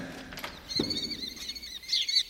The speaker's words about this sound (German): Naja, diesem Gekreisch nachzuurteilen, stehen wir nicht in der Badestube des Burgfräuleins, sondern vor dem Vogelhaus. Hier hausen die wertvollen Falken.